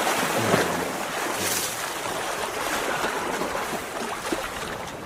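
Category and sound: nature, flowing river water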